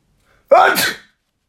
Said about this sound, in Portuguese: Vou espirrar. Vais?